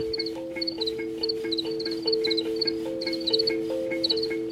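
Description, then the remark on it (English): Crickets chirp in quick, repeated bursts over a steady low droning tone, the calls continuous throughout, with no voices. “Even, you know, even after people sat for like half an hour and just like heard them chirping, they developed a connection to them.”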